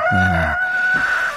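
A single rooster crow in a song played on KBS radio rings out briefly and loudly, set against steady sustained musical tones that continue after the crow fades. No one speaks.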